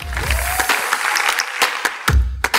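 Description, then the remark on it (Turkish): Applause from an audience welcoming guests onto a stage, a steady patter of many hands clapping with a few sharper, louder claps standing out, sustained throughout. “Sahneye ihtiyaç haritasından Belçin Bilgin, Mert Fırat ve İziko'dan Barbaros Özbuğtu'yu davet ediyorum alkışlarınızla.”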